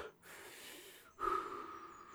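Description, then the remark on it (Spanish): A voice imitates the heavy panting of two women out of breath after a fight, facing each other: two long, loud breaths, the second rougher with a raspy voiced edge, with no speech. “hasta que las dos están jadeantes, una frente a otra.”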